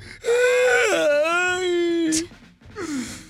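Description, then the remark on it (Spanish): A voice imitates a girlfriend crying: a loud, drawn-out wavering wail, a sharp breathy gasp, then a shorter falling sob. “Estaba una novia, ¿no? Llorando así.”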